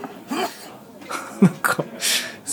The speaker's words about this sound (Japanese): すげえ咳咳じゃねえやすげえくしゃみしてんな